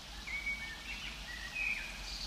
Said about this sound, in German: Und der Vogelgesang kommt natürlich auch live hier aus dem Wald.